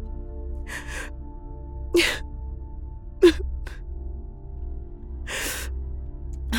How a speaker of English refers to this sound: Oh, and now I'm crying like a silly fool.